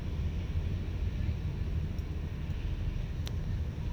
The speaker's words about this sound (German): Und hier ist auch ein ganz schöner Wind. Und hier ist so ein kleiner Baum und immer wenn der Wind kommt, vielleicht hört ihr auch das Rauschen der Blätter, dann fallen so ein paar Blätter ab.